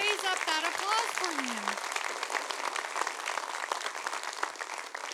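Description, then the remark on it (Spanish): An audience breaks into loud, sustained applause to the Lord, dense clapping, while a voice briefly calls out with rising and falling tones near the start. “ese aplauso fuerte al Señor.”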